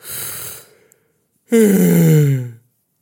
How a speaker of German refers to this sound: Kennt ihr das, wenn ihr gähnen müsst und euch dann die Augen dabei tränen?